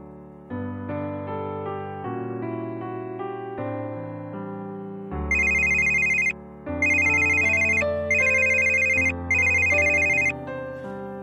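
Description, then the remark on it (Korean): A phone ringtone plays over a melodic music bed, its bright trilling rings repeating in four evenly spaced bursts during the second half, loud, with no talking. “전화벨, 전화벨 어, 15번이야?”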